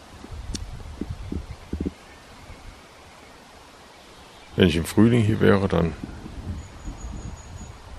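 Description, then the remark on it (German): A steady wash of street traffic noise fills the background, with only a faint, brief trace of birdsong, while a person talks in two short stretches. “Jetzt hören wir hier nur Straßengeräusche und vereinzelte Vogelstimmen.”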